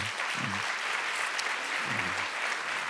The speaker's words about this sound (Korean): 이렇게 집회 멀리서 비행기 타고 여기까지 왔네. 우리 한국에서 오는 것도 쉽지 않은데 그렇죠? 예, 우리 우리 중국, 홍콩, 싱가포르, 말레이시아 우리 어? 우리 생명사역 지체들 정말 감사해 그죠? 어, 어. 박수 한 번 쳐줘.